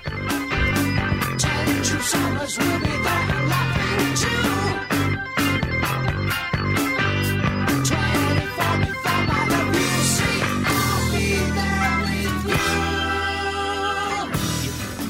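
A full-band progressive rock track plays steadily and loudly as background music, with driving drums, bass and layered keyboards and guitar, shifting into a sustained, swelling section near the end. No voices are heard.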